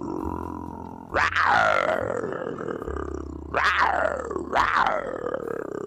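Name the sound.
man imitating a roar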